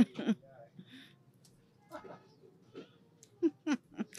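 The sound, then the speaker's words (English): A young boy's voice sings in short, uneven bursts in the background, faint, with brief breathy gaps between the little phrases. “and and and a child. he's singing.”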